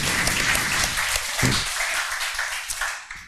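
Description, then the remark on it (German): A crowd at an FC St. Pauli event applauds steadily to congratulate someone on 19 years at the club, dense overlapping claps forming a continuous bright wash of sound that holds at a fairly even, strong level throughout. “Auch hier wieder Applaus.”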